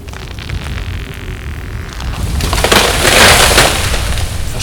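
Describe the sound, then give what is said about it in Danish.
A steady roar of strong wind gives way to a loud, rough crash of a tree coming down, a broad splintering rumble that swells midway and fades slowly. No one speaks. “Det er ikke hver dag, det blæser så meget, at træerne vælter.”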